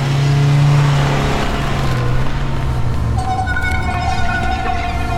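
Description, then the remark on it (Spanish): In a film scene, a car being stolen revs its engine hard and pulls away, its pitch climbing then shifting as it accelerates off, loud at first with a high whining tone emerging toward the end. “¡Eh, mi coche! ¡Mi coche!”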